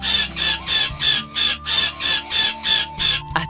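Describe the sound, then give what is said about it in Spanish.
A bird calls over and over, about ten short, shrill notes in a steady, even rhythm, fairly loud, with a faint low hum underneath and no voices. “Era él, ese pájaro era él. No había duda, era su voz, que ahora solo decía...”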